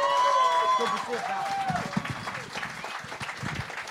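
Audience applause for comedian Kevin Brennan as he is introduced at a comedy show, a dense wash of clapping with scattered cheers and whistles, steady and loud before gradually thinning out.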